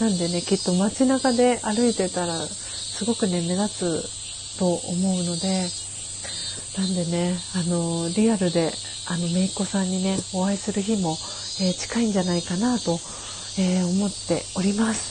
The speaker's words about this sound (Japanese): セミの鳴き声も大きくなってきましたねということで